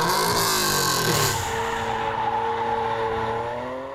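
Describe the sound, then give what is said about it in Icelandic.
A car drifts sideways around a set lap past cones at high speed, never driving straight, its tires squealing loudly and continuously in constant spin, the engine roaring beneath as pitch bends and falls; intense, with no voices. “verða að vera á hlið með dekkin alveg í nýjandi spóli allan tíman”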